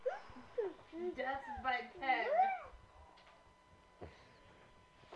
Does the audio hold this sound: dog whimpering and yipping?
yes